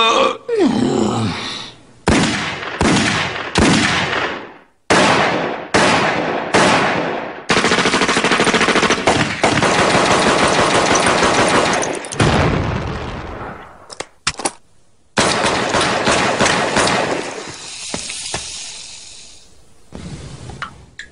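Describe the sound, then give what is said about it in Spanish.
Loud bursts of automatic gunfire, rapid rattling volleys separated by short pauses, then longer sustained strafing that cuts off abruptly before a few more scattered bursts. No one speaks. “Oh, no dispare, eh. tome el dinero y váyase.”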